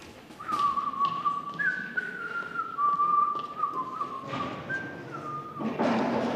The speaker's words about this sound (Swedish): Visslade igenom alla de operafantasier jag spelat på violin. Tema kom variationi.